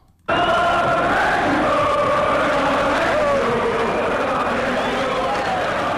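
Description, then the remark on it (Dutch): A stadium crowd at the Netherlands–Belgium play-off for the 1986 World Cup, with the Netherlands leading 2-0, roars and cheers in a dense, sustained wall of sound that bursts in abruptly and stays loud throughout, with overlapping voices and rising shouts within the din. “Eh, het publiek eh, liet, zich, eh, liet zich horen.”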